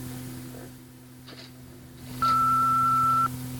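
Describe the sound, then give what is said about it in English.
A single steady electronic beep from a telephone answering machine, the tone signalling it to start recording a caller's message, sounds for about a second, loud and clear over a low constant hum. “Well, leave your name and number at the tone, and when I call you back, I'll let you know.”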